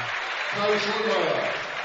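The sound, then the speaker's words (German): A crowd at a football game applauds as the referees throw a penalty flag, a steady, dense wash of clapping and cheering with voices mixed in. The sound is moderately loud and sustained, lasting only a couple of seconds. “Ich glaube, inzwischen gibt's schon Beifall, wenn die Schiedsrichter eine Flagge werfen.”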